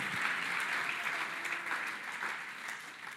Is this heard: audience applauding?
yes